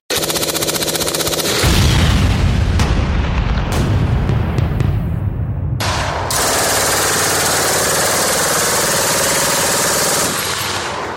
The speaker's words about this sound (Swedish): För alla er andra mm. så lägger vi in lite explosioner och kulspruteljud nu.